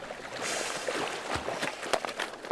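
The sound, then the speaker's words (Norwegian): A person in a wetsuit, flippers and snorkel wades backwards into cold sea water off Bergen, Norway, at sunrise to gather food ingredients, with steady swishing and splashing as legs push through the water, broken by a few sharper splashes and drips near the end. “går ut i vannet for å samle inn det han mener er utmerka råvare.”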